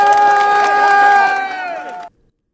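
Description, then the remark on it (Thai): A crowd cheers with sustained, rising voices over scattered clapping, applauding a police officer, loud for about two seconds before cutting off abruptly. “ตบมือให้กับคุณตำรวจหน่อยครับ”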